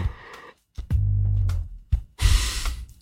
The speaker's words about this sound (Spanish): A ver cómo suena. Yo creo que este es el sonido. El corcho del amor. El sonido de la salud.